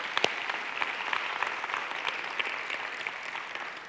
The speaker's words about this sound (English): So, church, would you give our online audience a big round of applause? Yeah.